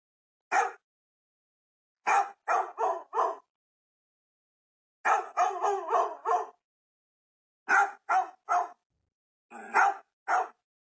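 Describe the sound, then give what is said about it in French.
A dog barks repeatedly in short bursts of two to five sharp barks separated by pauses, loud, with no one talking. “C'est le chien qui crie comme ça.”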